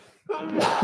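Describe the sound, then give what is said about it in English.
A single sharp sneeze bursts out after a brief hush, starting with a voiced catch and ending in a loud, breathy blast. “Yes, I just sneezed”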